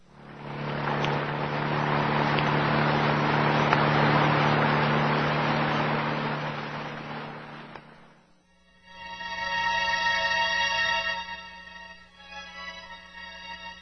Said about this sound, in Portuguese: Ligou o motor do carro e deixou o local.